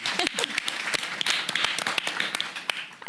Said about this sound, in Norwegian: Um, ja, la oss klappe.